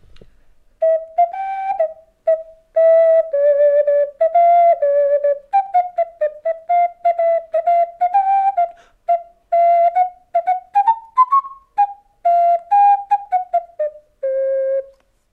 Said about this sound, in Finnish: Tätähän niin sanotusti jotkut sanoo kukkopilliksi.